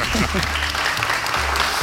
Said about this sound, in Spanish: Ya están aquí presente, Así que un aplauso para vosotros mismos, ¿no?